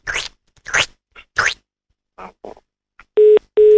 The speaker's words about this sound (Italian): Bastardo, mi chiudi un telefono.